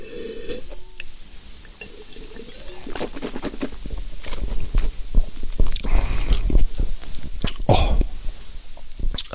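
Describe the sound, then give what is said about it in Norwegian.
Someone takes a drink: wet sips and swallows mixed with small mouth clicks and a throat noise, with no talking. “Åh, jeg må drikke et øyeblikk.”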